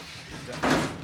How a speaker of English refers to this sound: Roll the door.